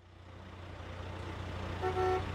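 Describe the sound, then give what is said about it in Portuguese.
Steady low traffic rumble and engine noise in a traffic jam stopped for kilometres outside Toulouse, France, in summer 1971, as a 30-metre truck slowly carries a giant fuselage section; near the end a Renault's horn gives one short, fairly loud honk over the idling vehicles. “Motoristas frustrados apertam as buzinas dos seus Renaults enquanto um caminhão de 30 metros carrega lentamente uma parte gigante de fuselagem.”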